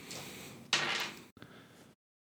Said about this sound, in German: Warte, ich mache auch einmal. Hier die Würfel, hört ihr sie?